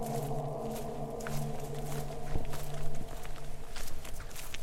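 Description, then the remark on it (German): Soft, irregular footsteps crunch and rustle along a forest path over damp, springy ground covered by a thick layer of leaves and moss, with a steady low hum running underneath throughout. “Der Boden ist feucht und federt unter einer dicken Schicht aus Blättern und Moos.”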